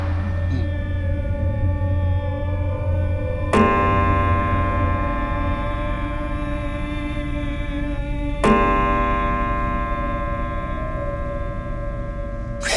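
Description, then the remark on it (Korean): A clock chimes with slow, resonant strikes, two clear hits several seconds apart, each leaving a long, humming ring that fills the space between them. No voices are heard. “종식의 종소리가 들린다.”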